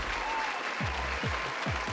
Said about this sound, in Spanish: Voy a poner aquí de fondo en este ¿eh? momento el, aplauso de fondo